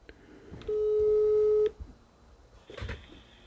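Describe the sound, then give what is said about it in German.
A telephone busy signal: one steady, mid-pitched electronic tone lasting about a second, framed by clicks, then faint rustling and handling noise with no voices. “Was zum Teufel? Besetzt.”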